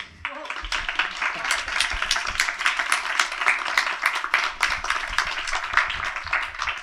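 An audience applauds the panelists at the end of a youth-area discussion at the Arvamusfestival, many hands clapping in a dense, continuous patter of sharp claps that holds at a fairly even loudness throughout, with no one speaking over it.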